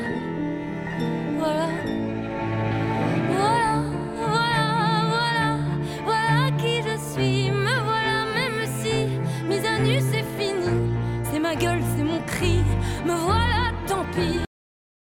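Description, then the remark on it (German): A French-language song sung by a woman, her vibrato-laden voice soaring over a full, loud band arrangement that plays steadily for about fourteen seconds before cutting off abruptly. “Ist ein Lied, was jetzt auf den ersten Eindruck, glaube, eine sehr diebe Message hat.”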